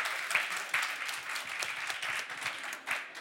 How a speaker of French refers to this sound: On l'applaudit pour l'encourager.